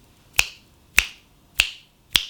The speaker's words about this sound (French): claque des doigts là.